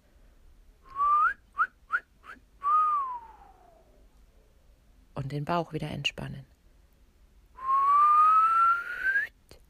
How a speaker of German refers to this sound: Und das ist die physiologisch gesunde Atmung, die Atmung der Souveränität, die Atmung des guten Supports für die Stimme. Pfeifen wir ein paar Mal.